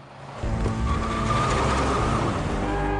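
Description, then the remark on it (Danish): Cars cruising and revving ("råning"): an engine revs loudly, a steady droning roar that swells after a brief quieter start, with a thin tire squeal threaded through it and no voices. “Råning.”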